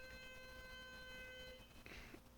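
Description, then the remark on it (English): A front door buzzer sounds as one steady electronic tone lasting about a second and a half, fairly faint, as a food delivery arrives, followed by a brief muffled rustle. “that's a weird beep. That's our uh, front door buzzer.”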